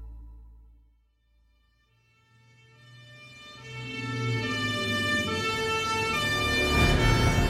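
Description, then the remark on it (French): An emergency vehicle siren starts faint and grows steadily louder and brighter as it approaches, arriving at the scene where a car struck pedestrians on a sidewalk, its wailing tones filling the scene by the end, with low traffic rumble beneath and no talking. “les secours euh, finissent par arriver”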